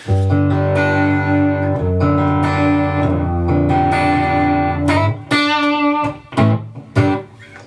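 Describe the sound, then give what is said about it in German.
Distorted electric guitar played through a 5150 amp profile with no pedal, sustained chords and a few choppy stabs, thick and saturated with a reverb tail, loud with no voices. “Genau, es ist jetzt ein äh, 5150-Profil äh, hier gerade, was wir hören.”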